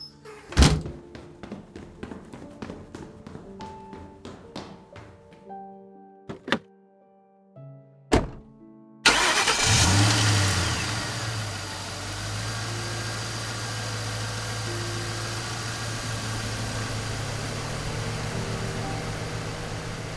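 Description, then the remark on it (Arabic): A car door thunks shut a few times with sharp knocks, then an engine turns over and settles into a steady running hum as the car pulls away. No one speaks. “الطريق أكيد زحمة والسيارات فوق بعض”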